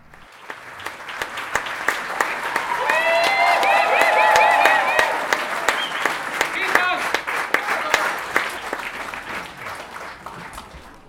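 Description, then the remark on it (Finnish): A theatre audience applauds for an encore at the end of a show on a summer evening, a dense patter of many hands clapping that swells in the middle, with cheers and whistles rising above it before it eases slightly toward the end. “Joo, taputtaa enkore.”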